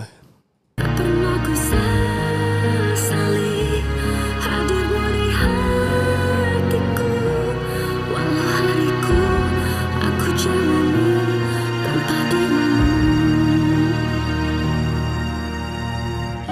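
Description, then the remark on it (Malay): A recorded pop ballad plays steadily, a woman's voice singing a sustained melody over full band accompaniment with bass, keys and drums, loud throughout after a brief silent start. “Jadi kita dengar sikit so, apa ni suara dia macam mana. Ini adalah satu lagu”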